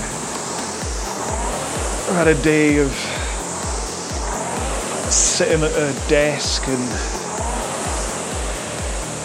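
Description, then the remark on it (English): A steady whooshing rush of a rowing machine being rowed, like an air-resistance one, during a four-minute warm-up at about 18 strokes a minute, with a fast repeating low thump running throughout, while a person talks over it. “I think it works out about 39 minutes worth of rowing plus this warm up.”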